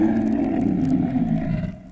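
A deep, frightening roar of a gigantic three-horned dragon rumbles loudly for about two seconds, a sustained growling bellow that tapers off at the end, with no talking.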